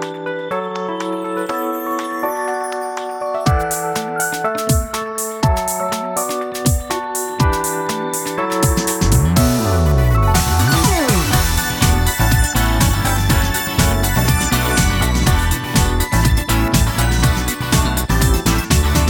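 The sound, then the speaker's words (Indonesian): An anime theme song plays alone and loud during a break, opening with a bright melodic intro before steady driving drums come in and a full band swells to a dense, energetic finish. “saja kalian dengar itu adalah suara takdir, sound of destiny yang setelah akhirnya aku berkecimpung di dunia wild album lumayan lama ini akhirnya sadar kalau lagu ini”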